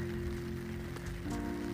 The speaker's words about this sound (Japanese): 雨の散歩気持ちいいですね朝鳥鳴いてるし今田んぼに水張ってる状態なのでそんな田んぼ道を歩いてるんですけど、うん、いいですね